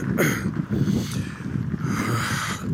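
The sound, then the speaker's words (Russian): Steady wind buffets the microphone, producing a loud, continuous low rumble with gusty fluctuations throughout and no voices. “Видите, сегодня особенно мне ваше понимание понадобится, потому что ветер.”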